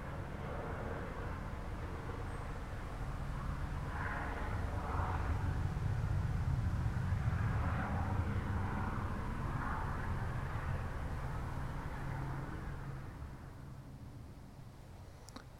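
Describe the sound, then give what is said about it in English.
A military helicopter passes overhead with a steady, heavy rotor and engine rumble that swells to a peak midway, then slowly fades as it moves off. No one speaks. “Helicopter going over, lots of activity today. I've seen quite a lot of military helicopters around today, as well as military planes.”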